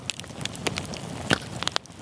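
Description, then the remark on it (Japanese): A campfire crackles, sharp irregular pops and snaps scattered over a steady low hiss of burning wood, with no voices. “あなたもこんな音で癒されてみませんかステーキを焼く音川のせせらぎ焚き火の音”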